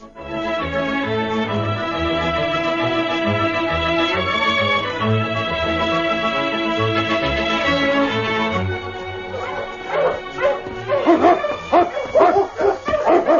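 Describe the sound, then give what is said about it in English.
A sled dog team breaks into loud, excited barking, several overlapping yips and barks, following a stretch of sustained orchestral music that gives way to the dogs; the team is racing over the frozen surface of the Klondike with Yukon King in the lead, returning from patrol. “The team was flying over the frozen surface of the Klondike, every dog anxious to get home.”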